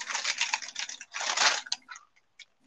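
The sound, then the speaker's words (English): A bag of chips is opened, crinkling and crackling loudly in dense bursts for under two seconds, then tapering off into a few scattered rustles and clicks. “what do you open a bag of chips?”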